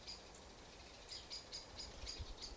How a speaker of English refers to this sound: And these unruly birds, I have to say.